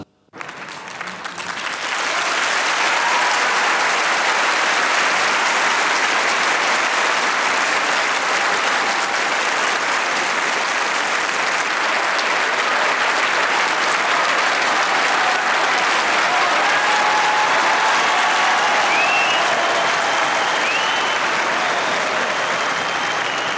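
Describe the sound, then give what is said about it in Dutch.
Archival recording of sustained applause from a large audience, a dense, steady wash of clapping that swells in quickly and holds at an even loudness for over twenty seconds, with no voices standing out. “Misschien kunt u het applaus ook even horen, want dat is wel leuk.”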